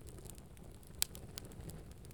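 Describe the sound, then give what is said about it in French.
A fireplace fire in a house crackles softly with a steady low rumble, scattered small pops and one sharp snap near the middle, quiet with no voices. “Un feu de cheminée semble te dire bonjour par ses joyeux crépitements.”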